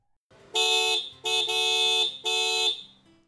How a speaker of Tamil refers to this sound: ஒரு பத்து பதினஞ்சு வினாடிகள் ஆகுது அண்ட் திடீர்னு மறுபடியும் ஒரு சவுண்டு கேட்குது ஒரு பைக்கோட ஒரு ஹாரன் சவுண்டு கேட்குது